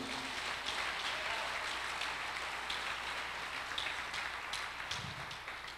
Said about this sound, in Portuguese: Dá um aplauso a Jesus aí, ó.